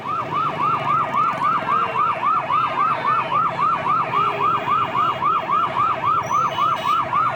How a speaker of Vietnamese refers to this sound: Quý vị đang nghe thấy tiếng xe cấp cứu chạy vội vã trên phố ở tập trước, khi kết thúc phần 1 của tập phim Người đàn bà bí ẩn, tiếng xe cấp cứu vang lên ngay sau vụ tai nạn.